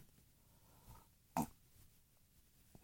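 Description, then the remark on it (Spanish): A single quick, loud slurp of hot coffee being sipped, standing out sharply from an otherwise quiet, low hum, with a faint click near the end. “Pero bueno, voy antes que todo voy a tomar un sorbo de café.”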